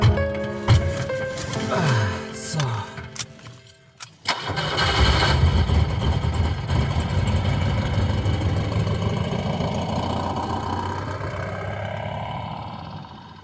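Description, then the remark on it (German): A car engine cranks and catches after a few seconds, then settles into a steady, low rumbling idle that continues evenly to the end, with no one speaking, as the car is started to drive into town in fog. “fahren wir in die Stadt.”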